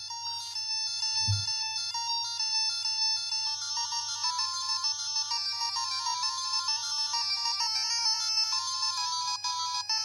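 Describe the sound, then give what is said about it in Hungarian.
Bright two-channel chiptune melody from a heavily hacked Game Boy Color, bleepy square-wave notes in quick staccato runs with a short echo trailing each note, steady and fairly loud with a low hum underneath. “Azzal a hogy volt egy rövid kis stakkátós kis vízhangi effekt.”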